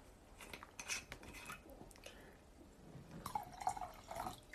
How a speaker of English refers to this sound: Somebody said, pour more, I shall.